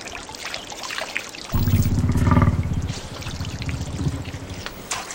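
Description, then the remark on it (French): Steady lapping and trickling of the water of the Lena River fills the scene, continuous; after a moment a deep, throaty gurgling rumble joins in and persists beneath the splashing. “Suivons le clapotis de l'eau.”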